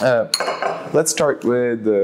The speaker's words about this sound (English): And uh, since we didn't have a, uh, chance to had a good full talk after, uh, right now we are in a cafe, meeting up and having this nice chat about everything.